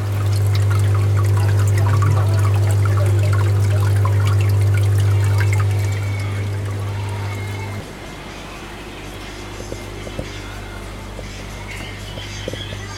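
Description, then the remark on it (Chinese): Steady trickling and pouring water runs continuously in a water tank under a low, constant hum, which drops in level partway through, leaving a softer dribble with faint clicks. “用水箱会有声音。”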